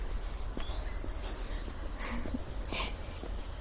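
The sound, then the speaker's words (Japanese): Faint birdsong: a thin rising whistle from a Japanese bush warbler, then a couple of brief bright chirps from other birds over a steady outdoor hiss. No one speaks. “エグイスも、他の鳥も鳴いてますね。”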